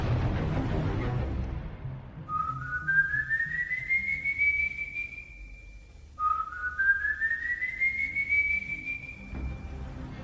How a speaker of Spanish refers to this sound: El muchacho revivió y sigue deambulando por la sabana, cargando los restos de su madre en una bolsa, asesinando hombres mujeriegos, siempre silbando su infernal melodía.